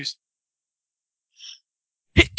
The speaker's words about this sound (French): Voilà. À tes souhaits. Merci.